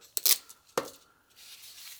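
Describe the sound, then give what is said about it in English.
A Velcro strap rips apart in two short, sharp bursts, a longer scratchy tear followed by a quicker one, then faint rustling. “Velcro straps, they come in different lengths, but you don't have to buy all the different lengths, by the way, because just like electrical zip ties, this one's only this big, right?”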